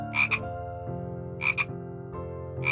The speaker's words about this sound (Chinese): 天啊！这次换楼下的青蛙在打嗝吗？拜托你停下来，别吵我了啦！ 但青蛙一打起嗝就停不下来了